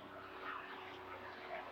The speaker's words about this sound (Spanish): Bueno, mi niña, yo debo decirte que eso es, ahí viene pasando un avión, pero voy a seguir hablando.